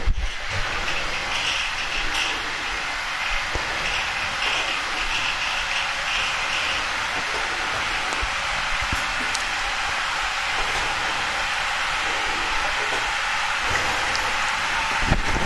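An electric kettle, just plugged in, heating water, giving a steady, fairly loud rushing hiss that holds for the whole stretch, with a few faint ticks and crackles scattered through it and no voices.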